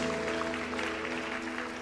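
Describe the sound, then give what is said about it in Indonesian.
An audience applauds for Jesus in a steady, dense wash of clapping that holds its level throughout, with a sustained low keyboard or organ tone humming underneath and no one talking. “Kemauan berikan tepuk tangan buat Yesus.”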